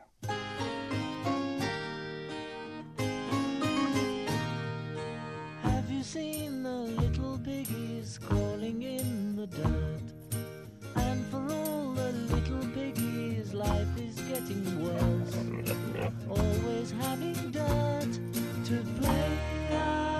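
A recorded rock song plays steadily for the full length, a sung vocal line weaving over bright, dense instrumental backing at a constant, fairly loud level, with no talking over it.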